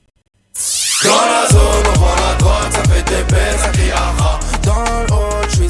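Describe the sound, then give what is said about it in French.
A Russian rap track starts with a rising synth sweep, then drops into loud, booming bass kicks on a steady driving beat under dense layered synths, with no vocals yet. “Enfin, c'est un son d'origine russe.”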